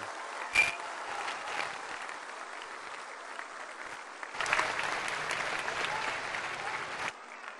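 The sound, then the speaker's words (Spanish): A crowd claps steadily for Julio at an event on disability pensions in Hidalgo, the applause swelling louder about halfway through before stopping abruptly near the end, with no one speaking. “Un aplauso para Julio.”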